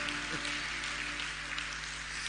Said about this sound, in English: You see, you clap as if your hand does not belong to you.